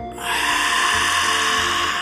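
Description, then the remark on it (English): A long, steady breath taken as a breathing exercise, a continuous airy rush that starts abruptly and holds for about two seconds, with no talking. “Take a deep breath, hold your breath, and slowly breathe out.”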